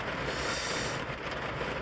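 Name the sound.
heavy rain falling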